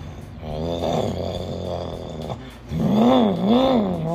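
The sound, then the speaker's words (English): A person imitates a rumbling car engine with their voice, a low buzzing drone that wavers in pitch and swells louder in the second half, like revving. “That noise, the crackle, the snap of the fire, of the explosions happening in that rumbling engine.”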